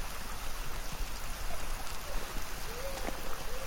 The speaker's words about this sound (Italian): Ritorniamo sulla sponda del torrente e risaliamo per un po' il corso d'acqua